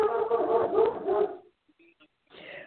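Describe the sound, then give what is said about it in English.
A dog vocalizes in the background with a sustained, tonal stretch of barking or whining, then a short pause before fainter, briefer sounds return. “Uh, I apologize for the dog in the background.”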